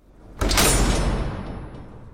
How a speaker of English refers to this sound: I burst through the swinging doors.